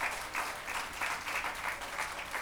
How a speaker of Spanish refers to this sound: Cuando damos al Señor un fuerte aplauso, aleluya, gloria al Señor.